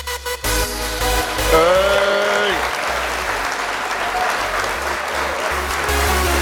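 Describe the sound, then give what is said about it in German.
Dense, steady applause from many hands, a loud continuous wash of clapping that runs the whole time, with a brief voice or tone near the start gliding over it. “ja, genug geklatscht jetzt.”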